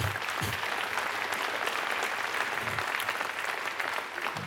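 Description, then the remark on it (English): An audience gives a soft, polite golf clap, many hands patting together in a steady, even patter that holds for several seconds without cheers or voices. “Golf clap for unity.”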